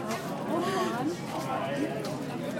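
Steady murmur of a crowded outdoor art fair in Madison, Wisconsin, USA, in July 2022, recorded while walking through it, with many overlapping voices chattering and a few talkers drifting past, no single conversation standing out.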